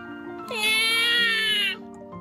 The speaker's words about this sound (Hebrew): בכה התינוק.